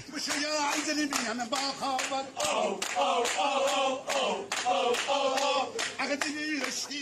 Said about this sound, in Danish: På forskellige videoer danser og synger mænd og kvinder i alle aldre og klapper til omkvædet ho, ho, ho.